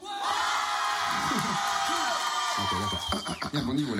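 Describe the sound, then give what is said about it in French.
A live crowd of adults, asked by the host to make noise, roars with shouts, cheers and whoops, a loud, dense wall of voices sustained for about four seconds, with a few individual yells standing out toward the end. “Les adultes, est-ce que vous pouvez faire du bruit”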